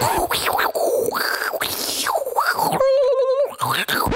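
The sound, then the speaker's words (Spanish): A voice imitates a dial-up modem connecting to the internet, a loud run of warbling, screeching sweeps with a brief steady electronic-sounding tone near the middle, closer to a strangled squeal than a real modem. “Eh, vale, estaba intentando hacer el sonido de un modem, pero creo que parecía más un gato despallejado”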